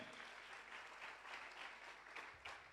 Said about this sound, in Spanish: Que alguien aplaude al Señor y te irá bien, te irá bien.